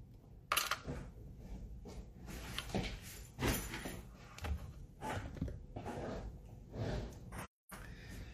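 A chair at the back is shifted and dragged out of the way, with a series of scrapes, thumps and knocks of varied loudness over several seconds, broken by a brief moment of silence near the end.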